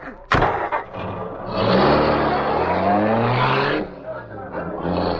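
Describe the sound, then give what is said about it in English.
A car engine roars to life and revs loudly, climbing in pitch as it accelerates, then drops back and surges again, following a sharp knock at the start. “Here's the car. I'll drive.”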